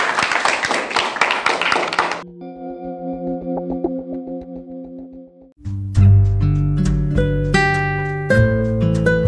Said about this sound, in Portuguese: Aquele abraço para vocês, palmas para ele.